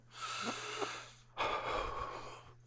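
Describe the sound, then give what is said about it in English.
Raspy, strained wheezing breaths from a person after inhaling blunt smoke, one long rattling exhale followed by a harsher second wheeze, with no talking. “And as you can hear, the smoke's creating a couple of issues for me.”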